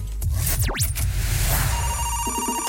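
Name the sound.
phone call ringing tone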